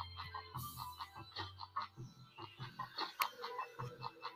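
Chickens cluck in a busy, uneven stream of short, sharp calls, moderately loud, with a low hum underneath during the first couple of seconds.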